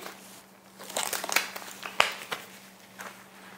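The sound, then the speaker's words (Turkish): Used disposable gloves being peeled off at a car after shopping at a market, a run of quick crinkly, rubbery snaps and rustles with a couple of sharper pops, fairly quiet with no one speaking. “Bu sebeple eldivenlerimi de çıkartıyorum.”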